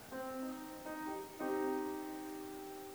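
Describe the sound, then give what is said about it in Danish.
A minor chord, built from a minor third with a major third stacked on top, played on a sustained instrument, its notes entering one after another before ringing together clearly and fairly loudly, with no talking. “Hvis du så bytter om på dem, altså at du tager den lille terts først og lægger en stor ovenpå, ja, så får du en mollakkord, og den lyder sådan her.”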